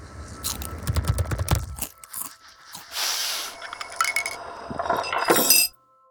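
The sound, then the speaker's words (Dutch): Loud chewing with wet lip smacks and crunchy bites, coming in irregular bursts for several seconds, with no one talking. “een eindeloze strijd over de geluiden die hij maakt. Slikken, snuiven, typen, tandenpoetsen, smakken, slurpen, ademhalen en gaan zo maar door.”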